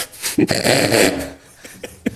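A dog growls in a rough, sustained rumble lasting about a second, then lets out a few short, sharp yips or huffs before falling quiet.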